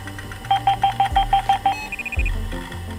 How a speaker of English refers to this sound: It was around this time that computer companies started to be much more intentional about what these devices sounded like, and that included the noises they made when you turned them on.